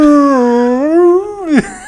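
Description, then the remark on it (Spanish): A person's voice imitates a whale call as a singing-class vocalizing exercise: one long, sustained tonal moan that wavers gently, slides slowly upward, then drops sharply at the end. It is fairly loud and heard alone. “Como ballena. Exactamente, yo siento que estoy haciendo cetáceo.”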